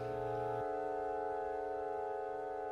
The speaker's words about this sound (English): So it wasn't even until February 5th, 2003, that the first audible music was actually heard from the piece a weird G Sharpie chord with a B in it that sounds kind of like this.